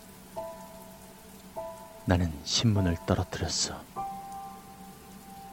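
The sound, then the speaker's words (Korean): Steady rain patters onto wet asphalt in a constant hiss, soaking a person's hospital gown, with a few faint sustained tones drifting in. A voice speaks briefly partway through over the downpour. “빗물은 내 병원 가운 속을 파고 들어갔고 나는 바람에 온몸이 떨려왔어.”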